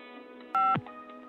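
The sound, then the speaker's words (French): A single telephone keypad tone, pressed to choose an option in an automated phone menu, a steady dual-pitched beep lasting about a quarter second, sounds over a low continuous hum, then cuts off with a brief falling thump. “À présent, choisissez votre image pour une photo de mer, tapez 1 pour une photo de ville, tapez 2 si vous souhaitez un titre sur la photo, tapez 1. Sinon, tapez 2.”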